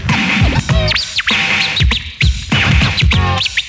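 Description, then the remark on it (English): A DJ's rapid turntable scratches on a record sweep up and down in pitch, chirping and warbling like a bird in quick repeated bursts, loud with a steady beat underneath. “Now make it sound like a bird.”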